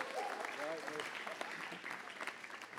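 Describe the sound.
An audience claps steadily in a dense, sustained burst of applause, with faint voices and a brief cheer rising over the clatter of hands.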